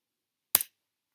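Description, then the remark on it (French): A single quick, crisp crackle of a sheet of white paper with a polygon drawn on it being folded and creased, with a sharp double snap that fades within a fraction of a second. No one speaks. “Puis, j'ai plié ma feuille.”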